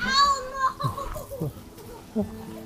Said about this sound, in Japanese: すごい、子供が子供の声です